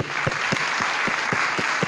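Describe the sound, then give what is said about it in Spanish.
Steady applause from an audience for the young men who took part, who stand up, a dense wash of many hands clapping with a few stronger claps pulsing through at a regular beat, fairly loud and with no voices over it. “Un aplauso para ustedes, muchachos, lo han hecho bien.”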